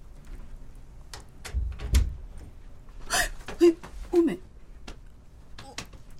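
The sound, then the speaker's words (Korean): A bedroom door is eased shut quietly by someone on tiptoe, trying to keep the hinges from creaking: soft clicks and handling noises, a low muffled thud, then a couple of brief faint creaks, with light breathing in between. “까치발을 하며 경첩 소리가 나지 않게 방문을 닫았다.”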